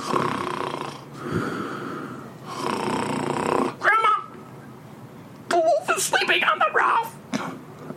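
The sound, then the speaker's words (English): A voice imitates the loud snoring of a wolf falling asleep on a roof in a story: two long, rasping breath cycles with broad noisy texture, followed by snuffly, whistling snorts and wheezy sounds, fairly loud with no other talking. “And the wolf sat on that roof for a while, but then he kind of got settled in and he started to fall asleep and he started to snore.”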